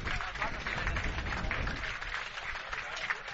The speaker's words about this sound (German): Jawohl, vielen Dank an unseren verletzten Spieler. Danke an euch für den Applaus.